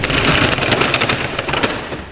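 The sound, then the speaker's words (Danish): A fire truck's side compartment is opened, a loud, steady clattering rattle with quick repeated clicks, like a roll-up shutter sliding along its track for about two seconds, with no voices. “Kan du ikke lige prøve at åbne ind til øh, siden af bilen her, vi lige prøver at se, hvad”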